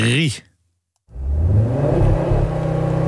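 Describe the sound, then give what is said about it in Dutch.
A brief voice, a second of silence, then the engine of a new Audi RS3 bursts in loud, roaring steadily as the car accelerates hard from a launch-control start. “die test de nieuwe Audi RS3”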